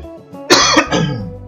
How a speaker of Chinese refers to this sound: 呃，很不幸的呵感冒了，所以这一集呢，请大家多多包涵。哦，这种低沉感性的声音啊，那因为讲话很容易咳嗽。